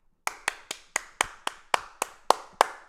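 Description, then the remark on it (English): A single person claps sarcastically about ten times in a steady, deliberate rhythm, each sharp clap distinct, with no voices or other sounds around it. “You hear that clapping? That is about as sarcastic of a clap as I can get.”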